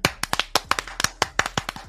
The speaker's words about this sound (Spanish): ¡Aplausos ¡Aplauso para Chocolate!